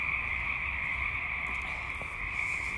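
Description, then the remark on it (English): A dense, steady chorus of frogs croaking loudly and continuously, a constant high trilling drone that fills the whole stretch without pause, with no voices present. “God, the frogs are loud.”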